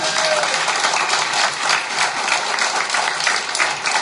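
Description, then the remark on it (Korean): An audience breaks into sustained applause, a dense, steady wash of many hands clapping together at an even loudness for the full few seconds, with no voices audible over it. “박수 치면 손바닥에 불이 나겠네.”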